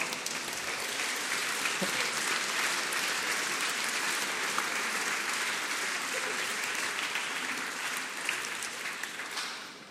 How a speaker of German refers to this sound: Und können nun mal alle aufstehen, die zwischen 30 und 60 Jahre alt sind, die Teil der Vignette sind. Auch für euch einen schönen Applaus.